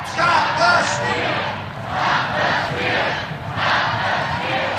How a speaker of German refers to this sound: Stop the Steal. Stoppt den Stimmenklau, skandiert die Menge vor der Kulisse des Kapitols.